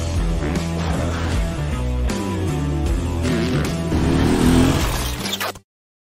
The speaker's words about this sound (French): Et je lance tout de suite le petit jingle.